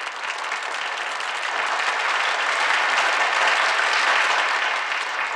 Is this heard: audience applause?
yes